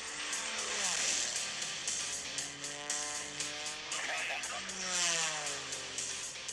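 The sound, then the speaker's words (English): A low-flying aircraft buzzes over spectators' heads while pulling G's: a loud, raspy engine drone whose pitch sweeps up and down as it passes, then swells again, with faint voices underneath. “Guys buzzing people's heads and pulling G's at them.”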